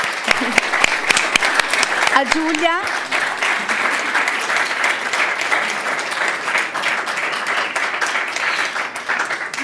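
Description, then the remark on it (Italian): An audience breaks into sustained applause at the end of a meeting, dense steady clapping filling the whole stretch, with a brief laugh and a few spoken words near the start. “Bene, allora io direi che siamo arrivati al termine del nostro incontro, se non ci sono altre domande facciamo un bel applauso Grazie.”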